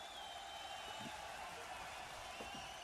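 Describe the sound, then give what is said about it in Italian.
Steady applause from a large crowd, played as an inserted applause sound effect, a dense continuous wash of clapping, with faint cheers and voices rising here and there underneath. “Vabbè, questi erano gli applausi proprio a scena aperta che io continuo a mettere random, insomma, eh, secondo me ci stanno in questo caso.”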